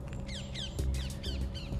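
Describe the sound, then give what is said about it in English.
Birds call repeatedly outdoors in the morning, a quick series of sharp, downward-sliding chirps from more than one bird, clear over a steady low background rumble. “I mean, the birds are quite noisy this morning.”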